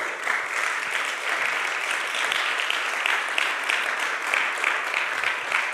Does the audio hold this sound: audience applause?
yes